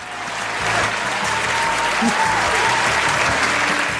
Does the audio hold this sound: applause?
yes